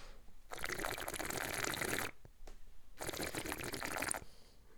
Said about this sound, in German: Warum man dieses Schlürfen übrigens macht, man gibt dem Wein damit Sauerstoff. Hm. Mhm. Weil normalerweise im Mund ist ja logischerweise, wenn du den Wein äh, im Mund hältst, ist da ja kein Sauerstoff drin.